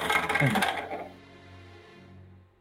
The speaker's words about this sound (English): Go ahead and roll it again. I do love this dice tower, but sometimes.